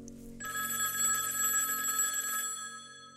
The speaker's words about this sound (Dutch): En dan rinkelt plots de telefoon.